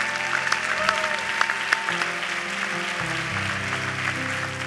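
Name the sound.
audience applauding and cheering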